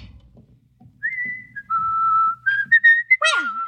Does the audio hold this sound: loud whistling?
yes